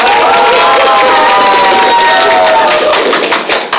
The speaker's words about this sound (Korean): 자, 그러면 두 번째 우리 어떤 발표가 나왔을지 한번 기대해 보겠습니다. 큰 박수로 환영해 주세요.